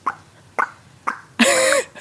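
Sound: hen clucking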